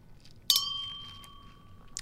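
Two glasses clink together once in a toast with a bright, sharp tap, then a clear ringing tone lingers and slowly fades. A faint, quieter tick follows near the end, with no voices.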